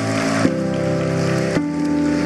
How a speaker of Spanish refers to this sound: Alguien dice gloria a Dios en esta mañana. Vamos, dele fuerte ese aplauso al Señor. Vamos.